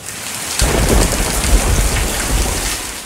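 Steady, heavy rain pours down, with a deep low rumble like thunder swelling in after a moment beneath the constant hiss of falling water.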